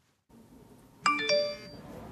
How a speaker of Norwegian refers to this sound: Så det der det er den øh, første SMS man får klokken halv tolv.